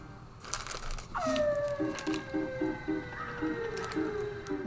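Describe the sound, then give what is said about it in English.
A single long wolf howl rises sharply, then slides slowly downward and holds for several seconds, with a crackly noisy background and a faint steady pulsing underneath. “what a great wolf sound.”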